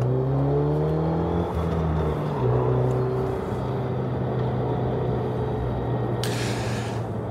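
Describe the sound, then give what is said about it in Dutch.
A Megane Trophy R hot hatch's engine drones steadily through a lap, its pitch sliding up and down with gear changes, with a brief hiss of wind or tire noise near the end. No one speaks. “Heb je wel een auto die ja, sociale isolatie tot iets aangenaams maakt. Ga nog even een rondje.”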